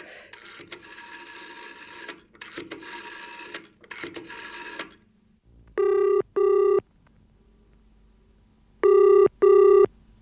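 A buzzy mechanical rattling in uneven bursts gives way to a telephone ringing, two loud double rings separated by a pause, with no one speaking.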